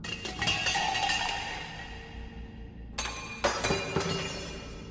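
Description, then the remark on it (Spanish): Objects are thrown and crash and shatter in a kitchen, glass breaking loudly, then two more sharp smashing impacts follow after a brief lull, with scattered clinking debris. No voices are heard. “O se escuchaba que en la cocina arrojaban cosas.”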